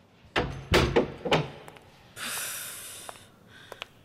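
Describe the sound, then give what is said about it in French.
A large heavy door in a psychiatric hospital thuds and clanks several times in quick succession, followed by a long hissing sweep as it swings, then a couple of faint clicks as it settles shut. “facile de s'y retrouver avec toutes ces grandes portes.”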